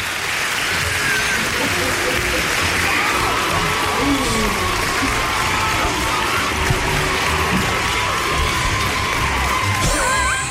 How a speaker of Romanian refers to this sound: Încă o dată, aplauze.